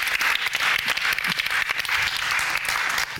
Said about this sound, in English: Give her a big round of applause. Thank you very much.